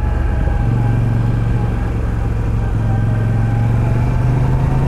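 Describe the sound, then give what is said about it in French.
A V9 motorcycle engine runs steadily while riding, a loud, low rumbling drone that holds throughout, its pitch creeping slightly higher toward the end, with no voices. “Mais bon, c'est une moto pour se balader, c'est une moto euh, on va dire pour euh, flâner, seul ou à deux.”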